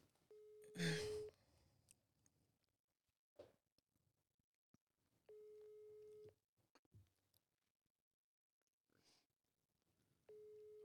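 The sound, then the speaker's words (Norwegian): A phone ringback tone repeats steadily, a one-second electronic beep followed by about four seconds of quiet, ringing three times with no answer. Faint rustles and clicks sit between the tones. “Ja, det var jo litt kjedelig at han ikke tok han òg.”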